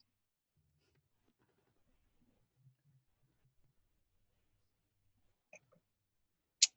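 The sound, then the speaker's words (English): Someone sips wine very quietly, with faint soft mouth sounds, then two brief wet slurps or clicks near the end. There is no talking. “This, this is me sipping wine.”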